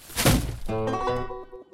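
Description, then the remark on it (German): A garbage bag is dropped into a bin with its lid opened, landing with a loud, muffled thump and crinkle, followed by a second of rattling, ringing clinks as the contents settle, with no voices. “Müllsack rein.”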